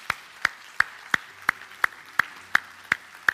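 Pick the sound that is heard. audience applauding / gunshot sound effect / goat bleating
audience applauding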